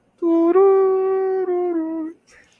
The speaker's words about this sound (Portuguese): Isso não é música de Pokémon, é? É do, da fase lá do, do cemitério Pokémon.